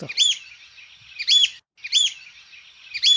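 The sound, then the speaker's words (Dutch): An icterine warbler sings clear, repeated bright phrases in bursts, with short pauses between, including notes borrowed from another bird's song. No voices are heard. “Ja, ah, daar hoor je wel een schoolhekster in.”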